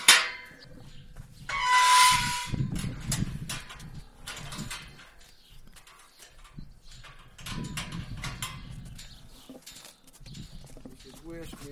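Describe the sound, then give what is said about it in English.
Yearling horses nibble and mouth right at the microphone, making irregular clicks and rubbing thumps, with heavy snorting breaths and a sharp hissy burst near the start. “The yearlings came right over to nibble on the microphone, ready for their big debut.”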